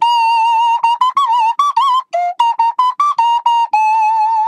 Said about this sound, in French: C'est un petit objet en plastique, en bois ou en métal selon les modèles, spécialement configuré pour s'adapter au nez et à la bouche du musicien. Oui, parce qu'on souffle dedans avec le nez, mais c'est avec la bouche qu'on module le son.